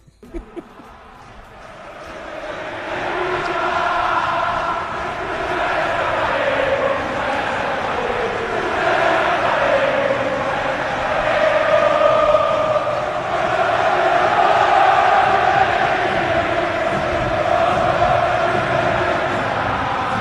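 A massive crowd of Boca Juniors supporters chants in unison in a stadium, singing thanks to Palermo: a loud, sustained, sing-song roar of many voices that swells in after a brief quieter start and carries on steadily.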